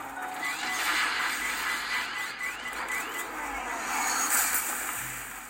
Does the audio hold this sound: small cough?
no